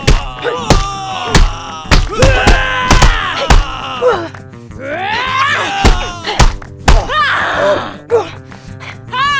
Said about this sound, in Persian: نیچه داشت به جواب این سوال فکر میکرد که یهو چهار تا زن ریختن سرش و با کمک دیوانه نهم حسابی کتکش زدن هرچی نیچه داد و بیداد کرد وسط جنگل کسی نبود که به دادش برسه